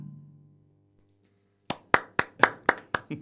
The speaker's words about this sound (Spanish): aunque solo estén mis aplausos porque estoy solo en solo en en el estudio hoy los los lo aplaudo con muchas ganas.